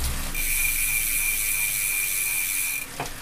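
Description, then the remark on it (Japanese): A steady freewheel ratchet buzz from a Thinkrider X7 direct-drive bike trainer as the pedals are stopped: a fast continuous clicking with a high whine, running evenly for nearly three seconds before cutting off, fairly loud. “で、ちょっと気になる点は、あの、ネットの情報だとね、ラチェットの音が気になると、えいうのがありましたけれども、今ちょっとペダルを止めてみますと、”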